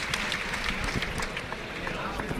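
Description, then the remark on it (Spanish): A strong ovation from a bullring crowd at the end of a mano a mano bullfight between Antonio Ferrera and Manuel Escribano at the Baratillo bullring: dense, sustained clapping holds at a steady, loud level for the whole stretch, blended with a murmur of crowd voices. “Y esta fuerte ovación que están ustedes escuchando.”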